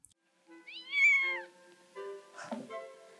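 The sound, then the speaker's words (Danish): A cat meows twice, a long rising-and-falling cry followed by a second, rougher meow, with no talking around it. “Hvor var katten?”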